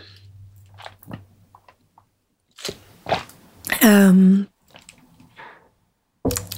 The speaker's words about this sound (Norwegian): Ehm, men jeg skal bare ta med en liten slurk vann.